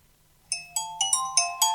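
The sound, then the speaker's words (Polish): A phone ringtone for an incoming call plays a quick melodic run of six bright electronic tones, evenly spaced, with no voices over it. “No i dzwonimy teraz do Mateusza. Zobaczymy, czy odbierze.”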